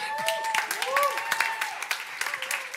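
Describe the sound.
An audience applauds with a dense patter of claps, fairly loud and steady for about three seconds, mixed with raised voices calling out and cheering over it.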